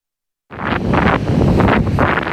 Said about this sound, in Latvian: Šorīt pievienojos veselības inspekcijas pārbaudē vecāku pludmalē Rīgā. Lai arī bija vējš un diezgan spēcīga viļņa,